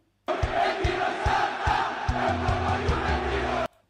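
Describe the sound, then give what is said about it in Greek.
A large crowd of football fans chants loudly in unison in Italian, an anti-Juventus chant ending "non salta è un porco juventino" (whoever doesn't jump is a Juventus pig), with rhythmic thumping beats about twice a second and sustained sung notes swelling in the second half before cutting off abruptly. “Ναι, και μετά λέει εκεί non salta è un porco juventino.”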